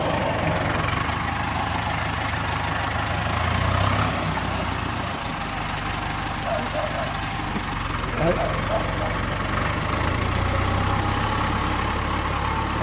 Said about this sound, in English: who's just coming up on the tractor now, mm-hmm.